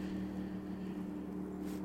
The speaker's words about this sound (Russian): Я сейчас сижу в парке, и тут едет лодка по реке моторная. Возможно, вы слышите.